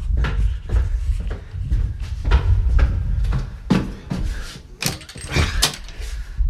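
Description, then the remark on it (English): Someone fumbling at a door: keys jangle and rattle amid a series of sharp clunks and bumps, like a latch and handle being worked, with no talking. “someone at the door.”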